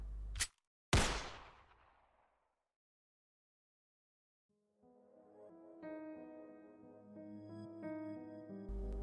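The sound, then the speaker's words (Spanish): Two sharp gunshots in quick succession as a trigger is pulled, the shot leaving a person dead; the second louder with a booming, reverberant tail that fades into silence before soft melodic music rises. “Miré sin reacción alguna el cuerpo despojado de vida que dejó ese disparo su semblante de sonrisa y paz solo empeoraba mi psique.”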